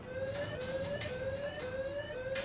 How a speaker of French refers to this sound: Au même moment, une alarme retentit.